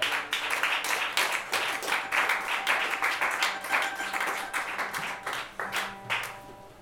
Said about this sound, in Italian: E allora applauso per questo applauso.